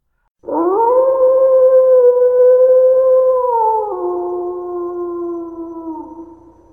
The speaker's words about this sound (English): The other thing that slowed them down was when they stopped once and started to howl. It was Jake who started it. It caught everyone by surprise, including Jake himself.